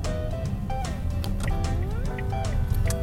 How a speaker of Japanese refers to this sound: さてよいしょそんな感じで車を出しますちょっと路肩に止めてました